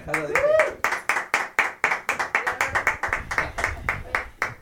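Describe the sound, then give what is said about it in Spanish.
Audience applause at a comedy set where new jokes are being tried out: a steady, rapid rhythm of sharp claps, fairly loud, continuing for several seconds, with a brief voice sound near the start. “Uh, un aplauso, por favor.”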